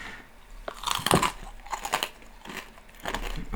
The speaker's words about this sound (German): Oh, geil. Schön ein bisschen schmatzen im Podcast. Wer liebt es nicht? Das ist kein Schmatzen, das ist ein Knuspern. Ja, das ist ein gutes Mittelding.